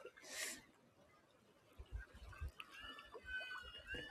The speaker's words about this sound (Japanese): 今こうやって海に来て遊んでおります。